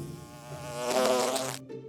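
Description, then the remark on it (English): A steady, droning buzz of bees with a harmonic whine that swells louder in the middle and then drops away abruptly near the end, leaving a quieter hum. “Uh, uh, go away, bees!”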